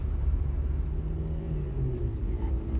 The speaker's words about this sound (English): The pedal is all the way down. The car is going about 90 miles per hour. I can't believe this. I've never driven this fast.